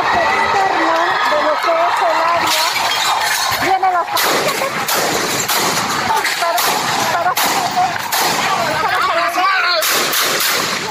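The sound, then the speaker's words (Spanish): Sharp, cracking gunshots fired into the air by police to disperse a protest at the Benito Juárez town hall ring out at irregular intervals over a loud, continuous crowd din, with shouting voices throughout and some crashing, shattering noises from protesters vandalizing the building. “un contingente se movilizó hasta el ayuntamiento de Benito Juárez donde realizó pintas y vandalizó el inmueble hasta que elementos policíacos dispersaron la protesta con disparos al aire.”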